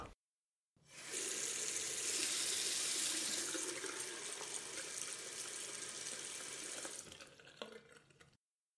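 A faucet gushes steadily into a sink for several seconds as someone rinses their face in cold water, a full hiss of running water with slight splashing changes near the end before it abruptly shuts off. No one speaks.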